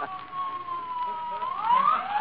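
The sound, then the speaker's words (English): A fire engine siren wails on a sustained tone that slides upward and grows louder toward the end, with faint background murmur beneath it. “Maybe it's a fire engine”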